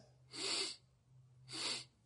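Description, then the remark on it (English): A person imitates a wild ass snuffing up the wind: two loud, breathy nasal sniffs about a second apart, with a faint low hum underneath and no talking. “Snuffing. Because they want to go sniff out the opposite sex.”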